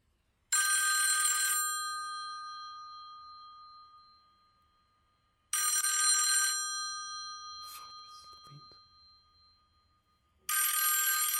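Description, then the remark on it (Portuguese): A loud, clanging old telephone bell rings in three long bursts, each ringing out for about a second and a half with a lingering metallic decay, separated by pauses; no one speaks. “Isto é uma campainha, deve tocar boa alto.”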